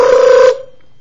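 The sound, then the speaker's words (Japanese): A single short burst of a telephone ringing, a trilling ring imitated by a voice, loud, lasting about half a second before cutting off into quiet; in the story it is the phone ringing in a girl's fourth-floor apartment. “ルルル電話が鳴った。”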